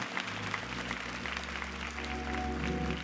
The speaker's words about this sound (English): Now, clap your hands if you believe God.